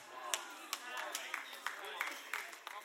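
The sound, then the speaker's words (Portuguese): About four people clap sparsely during a sermon, their sharp claps scattered unevenly over a steady murmur of voices. “Pelos quatro que aplaudiram, eu vou continuar a pregar.”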